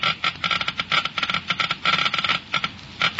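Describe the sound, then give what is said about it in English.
A Geiger counter measuring the engine wear rate in a motor oil test clicks rapidly in dense, irregular bursts, a steady crackling stream of sharp ticks heard alone at moderate volume with no voices. “You have just heard Geiger counters clicking off the scientific proof that new RPM motor oil is years ahead.”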